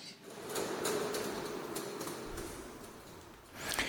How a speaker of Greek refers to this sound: Και ο ήχος του τρένου